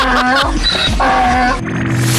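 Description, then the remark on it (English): A loud, harsh donkey bray: a few rough honking pulses that see-saw up and down in pitch, with no talking over it. “And Lloyd's got a donkey.”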